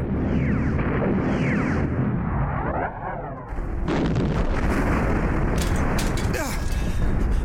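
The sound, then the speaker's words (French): A gas torpedo launch swooshes past, then a heavy explosion from its direct impact bursts in with loud rumbling and crackling impacts, breaching a ship's hull on level 3, over a constant dense roar of battle noise. “Impact direct Tout le monde au rapport Brèche de la coque au niveau 3.”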